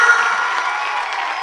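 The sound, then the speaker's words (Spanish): An audience, asked by the speaker to clap well, claps steadily, a dense wash of many hands at an even, fairly loud level for the whole moment, with a faint murmur of voices mixed into the applause. “¿Habrá alguien aquí que pueda aplaudir bien?”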